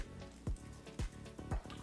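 Someone drinks water in hot weather of 31 °C: three steady gulps about half a second apart, each a soft, low swallowing thump with a wet squish, and no talking.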